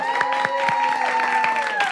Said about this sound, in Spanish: Un aplauso para la gente que